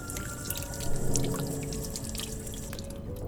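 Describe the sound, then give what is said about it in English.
Water is poured steadily into a glass for a few seconds, a continuous trickling and splashing with a faint rising tone, no voices present. “Um, some water would be nice.”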